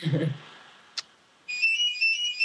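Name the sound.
home landline telephone ringing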